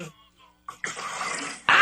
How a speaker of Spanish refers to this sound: Vamos a ponerle también un poco de agua para que no quede tan espesa.